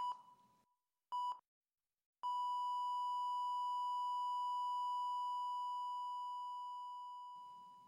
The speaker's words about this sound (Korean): 기계가 삑삑 소리를 내고 모니터 화면이 번쩍이는 한 모든 것이 괜찮다.